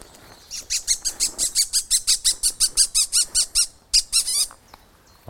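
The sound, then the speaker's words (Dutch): A Eurasian bullfinch calls in a quick, steady run of about twenty high, squeaky notes, with a brief pause before a final burst. No one speaks. “Maar mooi die goudvink. Ja, echt fantastisch. Ik hoor hem ook roepen.”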